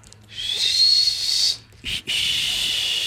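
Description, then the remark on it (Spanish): A person imitates a shrill, piercing warning whistle as heard on a ghetto street: one long sustained high blast, a brief pause, then a second held blast, loud with no talking. “Le aventó la piedra y entonces oímos el peor sonido que puedes escuchar en un gueto. ¿Cuál es? Un silbido.”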